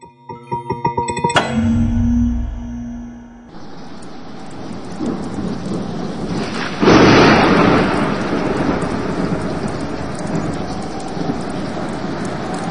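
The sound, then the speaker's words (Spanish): A sharp thunderclap rolls into a deep rumble, then a dense, steady roar of heavy rain and hail pounding surfaces in a city during an extreme storm, the hail covering the pavement completely, growing louder partway through and continuing without any voices. “Sí, me encuentro en la ciudad reportando una tormenta extrema. Es increíble. El granizo está cubriendo el pavimento por completo.”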